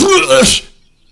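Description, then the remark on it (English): A single loud vocal outburst, a person making a sneeze-like sound with the mouth: a brief voiced yelp that breaks into a harsh, breathy burst and then cuts to silence. “Was that a what was that? A sneeze?”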